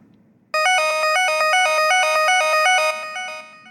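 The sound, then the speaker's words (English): A loud blood sugar alarm from an iPad, which receives readings from a sugar monitor, plays a rapid, repeating pattern of bright, stepping tones for about three seconds, then begins to fade, with no voices over it. “pull readings from Dana's sugar monitor and send them to this iPad, which has a very effective alarm”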